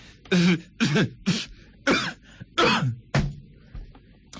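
A person fakes a short coughing fit: about six forced, throaty coughs in an irregular burst, fairly loud, with brief gaps between them.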